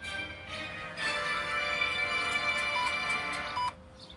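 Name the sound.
censor bleep tone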